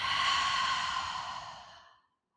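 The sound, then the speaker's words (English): A long, deep breath out during a meditation breathing exercise, an audible airy whoosh lasting about two seconds that gradually softens and fades to silence, heard on its own with no talking. “And breathing out.”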